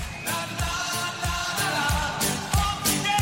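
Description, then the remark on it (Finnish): Upbeat pop music plays loud and full, a chorus of chanted "na na na" riding over a steady, punchy drum beat with crisp snare hits; after the second "na na na" a voice in the song clearly shouts "onko Keke täällä?", with no one talking over it. “Et siinä toisen na na na na jälkeen selkeästi huudetaan, onko keke täällä?”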